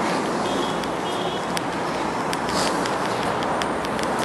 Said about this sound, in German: Ja, es ist richtig viel Verkehrslärm hier. Bin halt in Gangnam unterwegs. Im Berufsverkehr. Alle wollen zur Arbeit. Deswegen äh, ja, es ist hier ein bisschen laut an der Strecke.